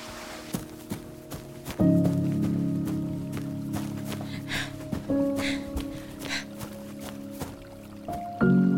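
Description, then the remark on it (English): Water in a creek trickles and drips, with soft squishing splashes, beneath a low, steady droning tone that shifts pitch a few times. No one speaks. “Okay, and I followed the same direction for another two hours until I heard water.”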